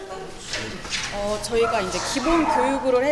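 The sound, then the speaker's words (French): Several dogs waiting in an enclosure at a dog training school whimper and yip in high, sliding whines, with a few short barks mixed in, continuous over a busy background with voices. “De l'autre côté, certains chiens attendent patiemment dans un enclos que leur leçon puisse débuter.”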